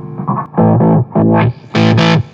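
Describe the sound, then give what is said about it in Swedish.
Electric guitar played through a distortion pedal with the volume lowered slightly and the gain turned up to maximum: a short riff, then three loud, heavily saturated chords rung out in turn, thick and buzzing, the last one brighter and harsher. “Om vi sänker volymen lite grann och så, så ökar vi gainen till max då.”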